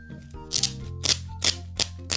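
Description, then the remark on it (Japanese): Velcro being pulled open in four short, raspy ripping bursts, spaced roughly half a second apart, fairly loud over a quiet, steady low background hum. “うんだね簡単に開けられますマジックそうマジックテープがついてるんでね多分”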